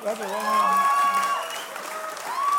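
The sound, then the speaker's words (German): An audience at the ICF church applauds its pastor steadily for a couple of seconds, a dense wash of clapping with a few high cheers and whoops rising over it, holding at a fairly loud level throughout. “Applaus.”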